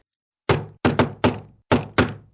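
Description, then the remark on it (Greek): Five loud knocks on a wooden door in an uneven rhythm: one, then a quick double, a single, a pause, and one more, each with a hollow thud. No voices. “Έρχεται και ο κακός ο λύκος και χτυπάει την πόρτα.”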